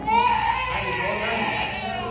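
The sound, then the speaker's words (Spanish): A child cries in one continuous, high-pitched wail lasting the whole moment, fairly loud, heard from inside an abandoned sanatorium during an exploration, over a steady low rumble of background noise. “EXPLORANDO SANATORIO ABANDONADO ESCUCHAMOS UN LLANTO”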